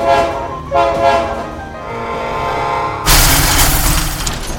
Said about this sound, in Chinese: 巨大的撞击声伴随火车的急刹声，四处飞溅的尸块就像烟火般，替这个安静的世界做了最完美的点缀。